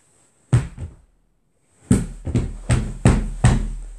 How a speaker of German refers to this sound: Okay, das, was ihr gerade gehört habt, war mein Handy, was ähm, auf das Sofa geflogen ist und dann wie meine Faust das Sofa verprügelt hat.